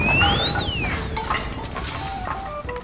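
A loud, sustained explosion-like crash of rumbling, crackling noise, with whistling tones sliding downward over it for about three seconds, heard alone without any voices.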